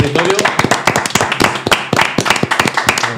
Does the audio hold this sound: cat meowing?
no